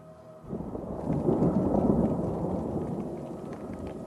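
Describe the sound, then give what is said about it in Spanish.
A thunderstorm: a deep, rolling rumble of thunder swells in after a brief quiet and keeps growling over steady rain hiss, loud, with no voices. “La tormenta”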